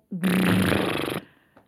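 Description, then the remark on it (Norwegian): A voice imitates a fart with a single loud, buzzy raspberry lasting about a second, then trailing off into a faint breathy tail. No other sounds accompany it. “våkner du mm, mm, mm. av din egen promp, mm, mm, og så er man sånn, og så ligger man der.”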